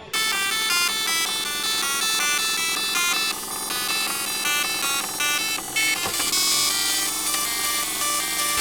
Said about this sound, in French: l'imprimante matricielle.